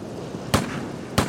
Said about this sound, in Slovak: V diálke počuje výstrely z pušky.